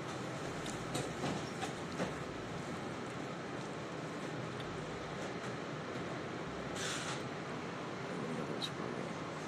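A subway train rumbles steadily along the rails, a dense, constant roar with faint rhythmic clicks and occasional brief metallic hisses or squeals rising above it.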